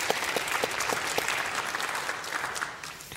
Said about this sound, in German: Herzlich willkommen auf dem blauen Sofa. Ihr Applaus für unsere Autorin.